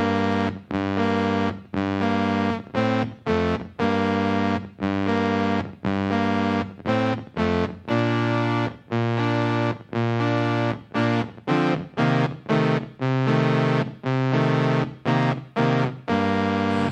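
A heavily distorted indie rock track plays with dense, buzzing guitar chords struck in choppy, stop-start bursts over a steady mid-tempo rhythm, loud throughout with no voices.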